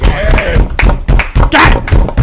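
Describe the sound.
A small group claps loudly, sharp irregular slaps overlapping in quick bursts, with some voices and a brief whoop mixed in.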